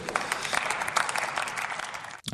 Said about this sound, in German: Applaus.